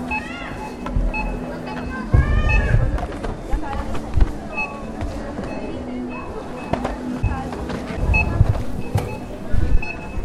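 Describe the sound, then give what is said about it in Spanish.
Busy supermarket checkouts: scanner beeps chirp repeatedly and irregularly at the cash registers over a steady din of shoppers' murmuring voices, rustling, and clattering items, all continuous. “Creo que esta uniformidad de supermercado se hace más evidente conforme nos acercamos a las cajas registradoras.”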